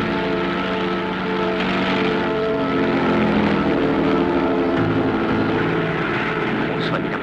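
A propeller airplane engine runs steadily and loudly, a dense droning hum with layered tonal whine that holds constant for the whole stretch, with slight wavering in pitch.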